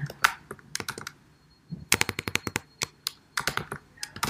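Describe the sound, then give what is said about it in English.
Quick, uneven keystrokes clatter on a computer keyboard, in bursts with a short pause partway through, then more rapid tapping, as someone types the answer "facilitator" in reply to a voice-app prompt; no voices. “I'm going to put facilitator.”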